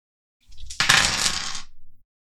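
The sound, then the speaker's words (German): Dice clatter and tumble across a hard tabletop in a quick rattling burst lasting just over a second, preceded by a soft low shuffle, with no voices; the dice are rolled for the enemy in a game. “Oh, möchtest du für meinen Feind würfeln?”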